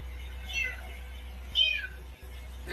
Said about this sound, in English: She found a kitty. little white kitty.